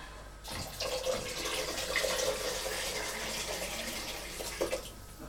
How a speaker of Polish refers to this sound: Po dźwięku garnka im wyższy dźwięk, tym więcej wody w garnku, dlatego tak po tym już mnie więcej poznaje.